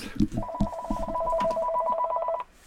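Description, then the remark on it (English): A phone rings with a steady, warbling two-tone electronic trill lasting about two seconds, fairly loud, while a voice murmurs briefly at the start. “can't believe I got a phone call now.”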